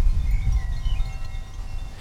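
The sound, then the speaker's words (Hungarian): Wind buffets the microphone with a steady, low rumbling roar that surges and eases slightly over a couple of seconds, with no voices. “Most amikor így fúj a szél, akkor kicsit belehallgatok, hogy mit hallanak a”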